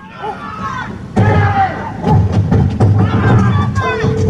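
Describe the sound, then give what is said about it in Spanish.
A large trash can is thrown down onto a biting dog, crashing with a loud thud and clatter, followed by more banging amid agitated shouting voices and general commotion. “Mira, eso que oyeron fue agarrar un bote de basura de los grandotototes, güey.”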